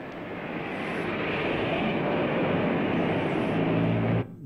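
A car in a film scene drives beneath the statue of Marcus Aurelius at the Capitol in Rome, its engine and road noise a loud, steady roar for about four seconds before cutting off abruptly. No one speaks.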